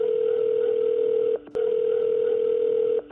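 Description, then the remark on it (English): A steady, mid-pitched telephone line tone at the start of a 911 call holds for over a second, breaks briefly with a sharp click, then resumes at the same level before cutting off. No one speaks. “So we're going to play the 911 call for you.”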